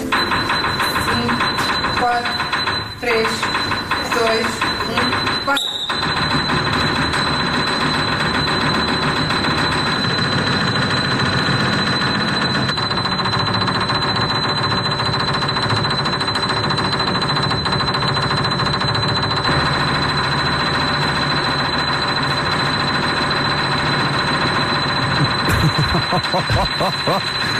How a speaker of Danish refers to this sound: And I'm going to attempt to break the previous world record of most piano hits in a minute. the key on the piano which I'm going to use is B7, the second highest key on the piano.